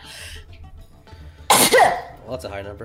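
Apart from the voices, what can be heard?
sneeze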